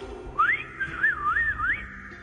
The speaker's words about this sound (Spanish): ¿Y qué cree que fue que lo que hice? Pues silbar.